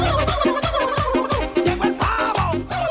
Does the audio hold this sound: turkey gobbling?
yes